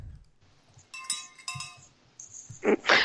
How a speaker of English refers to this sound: I've got a bell.